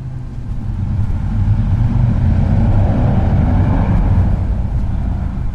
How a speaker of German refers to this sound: In dem Moment fährt vor dem Haus ein sehr lautes Motorrad vorbei.